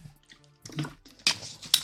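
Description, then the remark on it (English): Water is poured into a glass to make a drink, a little extra water this time: a quiet trickle at first, then two brighter, splashy bursts of liquid. No voices. “whew, I did a little extra water on that one.”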